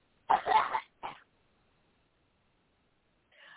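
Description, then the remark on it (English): A person coughs: a harsh, drawn-out cough followed by a shorter one, then a pause of silence before a faint rustle of sound at the end. “You keep on coughing, all right?”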